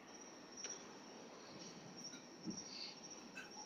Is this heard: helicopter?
no